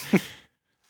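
A single sneeze, a sharp explosive burst that trails off into a breathy hiss within half a second, followed by silence.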